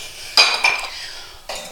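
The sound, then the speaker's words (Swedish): A large glass jar of herbs dried this summer is taken down from the top of a cupboard and set out, giving a few bright clinks and knocks: two quick ringing taps near the start, then one more after a short pause. No voices. “För vi skulle ju också prata lite grann om vad jag har i mina glasburkar som jag har torkat från i sommar. Där ska vi se, så tar vi ner den.”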